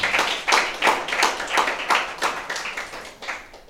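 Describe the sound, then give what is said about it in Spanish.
An audience applauds together for the Lord, steady clapping with rhythmic bursts every few fractions of a second, lively, tapering off toward the end with no talking. “Ah, fuerte aplauso, Señor.”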